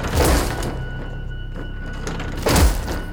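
Two heavy thuds against a second-floor window, the first right at the start and the second near the end, each a dull impact with a brief rattling edge, separated by a quiet low rumble.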